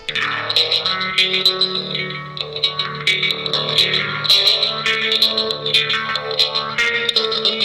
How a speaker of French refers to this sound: Il te joue … de … sur une double guitare fabrication maison couplée avec une batterie dorsale du plus bel effet.